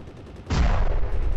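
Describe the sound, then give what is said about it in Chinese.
Battle sounds as the Japanese army attacks General Zhang Zizhong's troops with aircraft and artillery: a rapid patter of gunfire, then a sudden loud artillery blast whose deep, rumbling roar sustains to the end, with no voices. “司令，我们敌人今天改用飞机、大炮对我们进行轰炸，我们几次反击都没有成功。”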